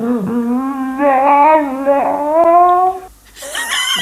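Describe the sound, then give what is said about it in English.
A dog makes a long, warbling howl-whine whose pitch rises and falls as if mouthing "mama," then a brief higher-pitched yelp; fairly loud, with no talking. “what is the dog saying here?”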